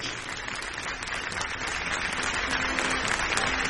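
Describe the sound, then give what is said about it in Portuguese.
An audience at a church service applauds Jesus together after a prayer, a dense, steady wash of many hands clapping at an even level throughout, with no speech over it. “Você pode aplaudir Jesus bem forte.”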